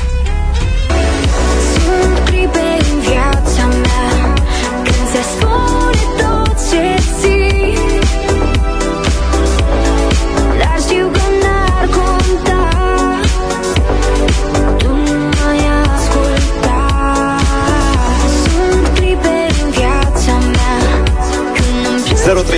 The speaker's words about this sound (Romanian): merg pe un cover în dimineața asta.